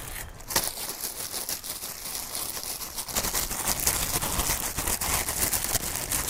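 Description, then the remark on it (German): Continuous crinkling of a plastic bag, fairly loud, with dense irregular rustles and crackles that grow busier halfway through and carry on steadily to the end. “Es, es handelt sich um eine Plastiktüte.”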